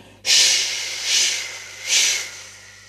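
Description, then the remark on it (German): A voice imitates a vacuum cleaner sucking dust off a coat rack through its suction tube: a loud, breathy hiss that starts abruptly and swells in three surges, with no words spoken. “hört Frau Usebuse aus dem Saugrohr und der Staub verschwindet im Staubsauger”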